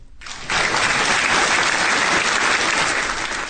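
A burst of steady, loud applause from a crowd begins after a brief quiet moment and continues at a constant level, a dense wash of clapping hands with no speech.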